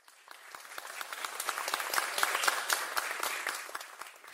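A crowd's applause of many hands clapping steadily, rising to a fuller peak midway and then easing off slightly, with dense overlapping claps and no voices.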